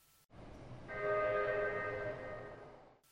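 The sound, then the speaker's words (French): A metro train rumbles steadily in a tunnel, a high tonal whine rising over the roar after a moment and holding loud for a few seconds before fading slightly. “Je suis dans le métro. J'ai peur du tunnel.”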